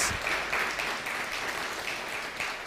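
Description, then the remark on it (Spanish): Loud applause from a crowd, a dense, steady wash of many hands clapping that holds at full strength for the whole stretch, with no voices standing out. “Fuertes aplausos.”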